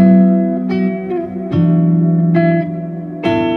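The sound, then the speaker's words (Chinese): An electric guitar in a three-piece band run through effects set up to create a pad, like a second guitar or synthesizer, with chords struck about four times and each one swelling into a sustained, shimmering synth-like pad that fills the gaps between strums. No one speaks. “像我有一个这个设定，就是它会产生一个 pad 的感觉， 嗯， 所以我在弹一些，你”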